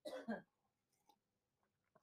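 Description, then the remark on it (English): Two quick, loud slurping sips of hot Maxwell House coffee, followed by quiet mouth clicks and a brief swallow-like sound near the end. No one speaks. “Uh, I was very happy as I take another uh, sip of coffee here.”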